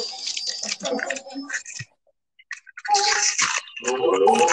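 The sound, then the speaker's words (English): Loud, wet sucking and slurping on a ring pop candy, coming in two busy bursts of smacking, squishy mouth noises separated by a brief silent pause. “It's literally a ring pop. If you're gonna eat a ring pop”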